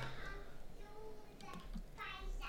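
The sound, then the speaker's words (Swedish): A young girl plays and chatters while running around behind the speaker, high-pitched vocal bursts coming and going amid faint background noise and low rumble. “Hör du min dotter i bakgrunden förresten? Ja. Yes, eh, hon springer runt här bakom så ursäkta ifall det låter lite.”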